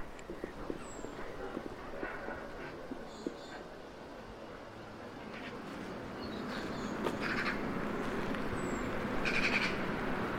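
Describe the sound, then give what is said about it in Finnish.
A magpie gives harsh, rattling chatter in short clustered bursts, moderately loud, over a steady rushing of running water from a small stream beside the recorder, with a few thin high bird notes scattered through, in an urban nature soundscape. “Äänikään ei ole ehkä ihan kauneimmasta päästä, mutta harakka on älykäs ja tarkkaavainen.”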